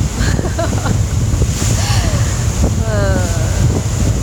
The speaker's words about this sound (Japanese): まあうるさいですね海がいい感じにうるさいですね外で撮ってるわけなんです